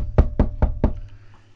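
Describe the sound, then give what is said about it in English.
Four quick, evenly spaced, solid knocks on a door, followed by a short quiet pause with faint background noise. “I hear you knocking, exactly.”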